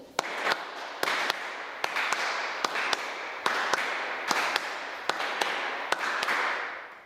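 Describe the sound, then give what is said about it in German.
Hands clap together the pony gallop rhythm, about eight pairs of sharp claps, each pair a quick short-long figure, repeated evenly over a continuous hissy background without any talking. “Sollen wir es einmal kurz gemeinsam klatschen?”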